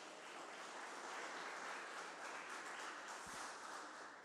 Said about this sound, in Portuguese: Aleluia! Aplauda Jesus bem alto, gente.